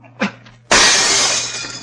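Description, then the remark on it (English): A soft knock, then a chair crashes through a glass door pane with a loud shatter, the broken glass ringing and tinkling as it slowly fades. “Smash the glass with that chair.”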